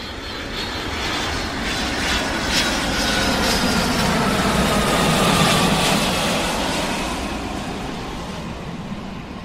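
airplane flying

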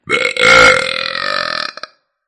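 loud burp

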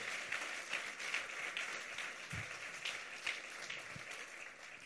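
audience applauding

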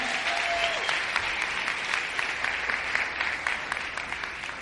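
audience applause

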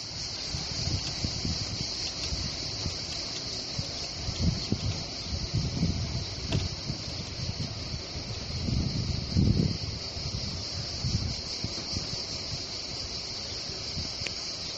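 cicadas chirping

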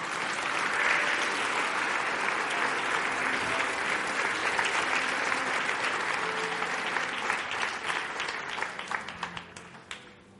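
audience applause

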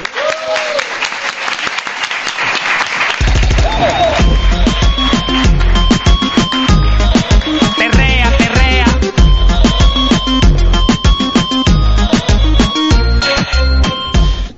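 applause

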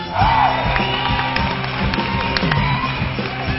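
crowd cheering and applauding

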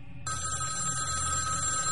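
telephone bell ringing

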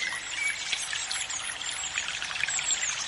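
river water flowing

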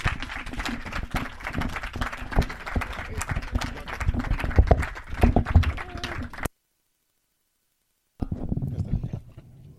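audience applause

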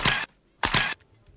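camera shutter click

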